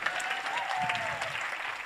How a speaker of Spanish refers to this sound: Démosle un fuerte aplauso a ellos, por favor.